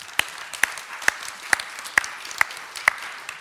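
Applause in a slow, steady beat: about eight sharp, evenly spaced claps, crisp and clear over a quiet background, with no one talking.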